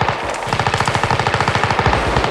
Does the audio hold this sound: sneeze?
no